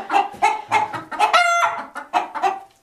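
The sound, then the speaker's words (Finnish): Chicken sounds: a run of busy, overlapping clucks from hens with a rooster's drawn-out, harmonic call rising in the middle, all bunched together like a flock crowding in to feed as the chickens are fed softened vegetables such as cucumber and tomato, and bread. “meidän kukkoseen vähän tykkää niin kuin pitää jöötä.”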